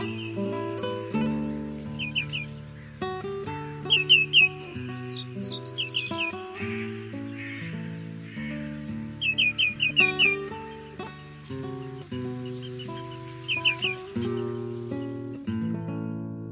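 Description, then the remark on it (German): Common greenshank calls ring out in quick bursts of two or three clear notes, repeating several times over a steady background of sustained musical tones. “Das war der Grünschenkel.”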